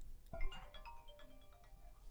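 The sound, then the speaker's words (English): A telephone on a mobile crisis line rings with a short run of electronic, melodic tones, fairly faint, after a soft thump, with no one talking. “As we're talking, the phone rings.”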